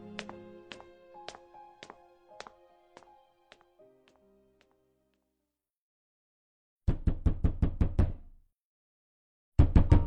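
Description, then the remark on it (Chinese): Loud, rapid pounding on a door comes in urgent bursts of about eight blows, then starts again, after a quieter stretch of soft rhythmic tapping with a faint ringing tone that fades into silence. “敲门声如同暴雷一般急促，瞬间惊醒了徐以沫。”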